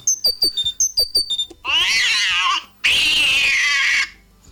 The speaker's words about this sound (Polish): Jakiś wściekły kot.